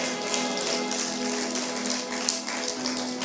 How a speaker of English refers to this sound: There's times when you, and all the women are clapping in the house.